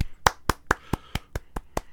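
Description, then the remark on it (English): A single person claps their hands about nine times in a quick, steady rhythm, each clap sharp and bright, with no talking in between. “I, I gotta applaud that.”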